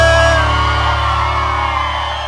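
A crowd shouts and whoops together after a song, answering a call for those who liked it to shout, in a loud, sustained roar lasting a couple of seconds, with many voices blending into one continuous wall of cheering.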